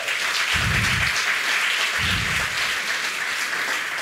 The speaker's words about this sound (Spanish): Los maestros de niños que se pierden muchas veces los domingos. Denle un fuerte aplauso a esa gente.